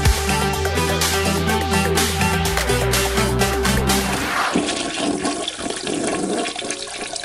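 A loud toilet flush: a deep, roaring, gurgling surge of water for about four seconds, then a steadier hissing rush as it drains and refills. No one speaks.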